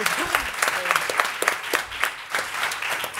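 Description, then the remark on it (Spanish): A short burst of applause, dense clapping with sharp irregular hand claps across the whole stretch, fairly steady in loudness, with a faint voice briefly audible underneath near the start. “¡Ay, correcto! el sudor, sí, señor. aplauso.”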